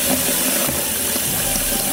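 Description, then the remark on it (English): A steady, loud rush of water pours continuously for two seconds, like a tap running full blast or water gushing, with a broad hissing splash and no voices. “to water damage to whatever the heck that was.”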